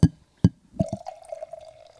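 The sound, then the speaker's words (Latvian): Two sharp knocks, like a bottle tapping glass, then a steady stream of beer pouring into a glass, its gurgling pitch rising slightly as it fills. Fairly quiet, with no talking. “Tā nav, tā nav tolete. Mēs tam lejam alu.”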